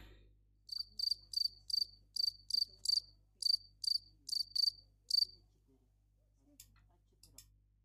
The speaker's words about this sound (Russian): Загугли на ютубе звук сверчка, третий результат идеален.